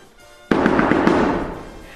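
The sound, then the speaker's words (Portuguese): Loud, rapid pounding on a door: a burst of about five hard knocks in quick succession with a rattling wash between them, fading away over the next second. No voices. “Bater assim à porta vai arrasar o teu esqueleto.”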